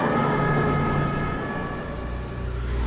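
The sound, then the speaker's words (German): A police car siren (Martinshorn) sounds loud and continuous over the rumble of traffic as the police car drives past with blue lights on its way to a police call, its tone holding steady throughout with no voices. “Das war ein Martinshorn. Denn hier ist gerade ein Polizeiauto vorbeigefahren.”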